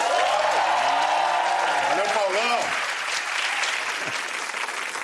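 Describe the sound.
Steady, dense audience applause for the musical director, leader of a singer's band, a musician, fills the whole clip, loud and continuous, with a man's voice speaking over it for the first few seconds before the clapping carries on alone.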